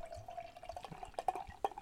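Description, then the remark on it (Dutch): Extra-brown barley wine is poured from a full bottle into a glass, a steady liquid stream with a ringing tone and a few sharp splashes and glugs near the end, no voices. “Kan maar lomper inschenken.”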